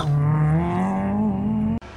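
A rally car engine on a gravel track drones loudly and steadily during Sunday rally training at Falköpings Motorklubb's motor track in Falköping, its pitch climbing gradually as it accelerates, then cuts off abruptly just before the end. No one speaks.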